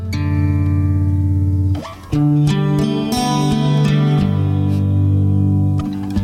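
A pop song intro with sustained, layered synth or keyboard chords, loud and steady, pausing briefly near two seconds before resuming with shifting notes; no singing or talking.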